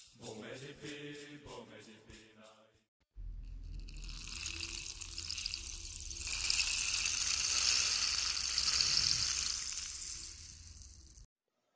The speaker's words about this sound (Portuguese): Agora, preste muita atenção num pau de chuva.